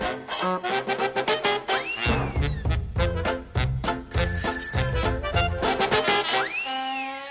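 A recorded pop song plays loudly and continuously, with a punchy, steady beat, bright ringing guitar or bell-like tones, and sung vocals riding over a driving rhythm.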